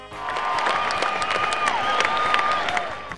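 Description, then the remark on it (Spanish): A crowd applauds steadily for a few seconds, a dense wash of many hands clapping with whistles and cheers rising above it, holding at an even loudness throughout. “¡Aplauso, por favor!”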